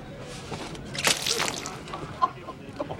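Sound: slap across the face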